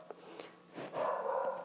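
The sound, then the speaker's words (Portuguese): A dog barks and yelps, the sound growing louder and more continuous in the second half, with some sniffing or snorting noises mixed in and no talking. “Nossa, Sempre tem um cachorro latindo.”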